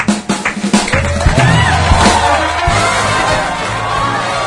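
A crowd bursts into loud, sustained applause for a woman who has just sung, with cheers and whoops rising over the clapping, dense and continuing steadily throughout.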